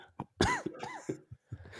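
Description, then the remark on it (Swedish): A burst of several loud coughs in quick succession, raspy and wet, brought on by laughing, tapering into a couple of softer throaty coughs. “Skrattar så jag börjar hosta.”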